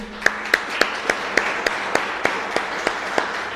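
An audience applauds, with sharp claps landing in a steady, even rhythm over a dense wash of crowd clapping; no one speaks.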